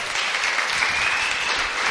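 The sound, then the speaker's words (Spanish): A crowd applauds the winner of an audience vote steadily, a dense wash of many hands clapping at an even, sustained level throughout, with no voices standing out. “Un aplauso, por favor.”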